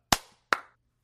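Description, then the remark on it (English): A group hand clap lands as two sharp, loud bursts about half a second apart, each with a short fading tail, as though the hands didn't quite hit together. “Three, two, one. Clap.”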